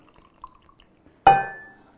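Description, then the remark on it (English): Tea is poured through a tea strainer into a glass French press, splashing in one sudden burst and leaving a bright glassy ring that fades over about half a second, with faint drips before it and no talking. “Just pour it in.”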